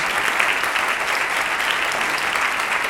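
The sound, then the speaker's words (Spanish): Steady applause from an audience, a dense wash of many hands clapping at an even loudness throughout, with no talking over it. “Bueno, vamos a darle por verse el calor del público que nos acompaña hoy, el calor de los aplausos,”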